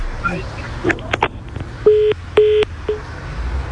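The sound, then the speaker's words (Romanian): A phone line tone after a dropped call from a caller somewhere in the country: two steady, fairly loud beeps and a short clipped third, preceded by line clicks and faint, muffled background noise. “L-am pierdut.”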